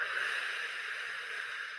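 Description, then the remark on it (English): A steady, forceful breath pushed out through the mouth during a yoga breathing exercise, a breathy hiss lasting a couple of seconds at an even strength, with no talking over it. “So, breathing in and then breathing out, push away”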